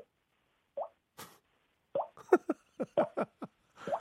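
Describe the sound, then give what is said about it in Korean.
A voice mimics dripping water with a string of about nine quick, hollow mouth plops, starting sparse and then coming in a faster, uneven run, clear with no talking. “다음 물방울 소리요. 물방울 소리 들어보겠습니다.”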